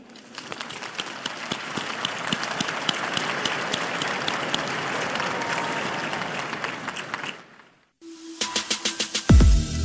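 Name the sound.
crowd applause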